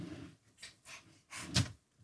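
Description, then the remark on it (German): A cabinet drawer is pulled all the way open in a few rough, hissing pulls, ending in one sharp click as it latches at its stop. Fairly quiet, with no voices. “Ah, und da hat man es schon gehört. Die rasten ein.”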